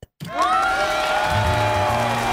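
After a brief silence, a loud crowd bursts into cheering and applause, with high whooping voices rising over steady clapping that holds for a couple of seconds.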